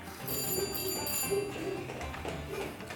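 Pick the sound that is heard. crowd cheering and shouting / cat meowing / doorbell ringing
doorbell ringing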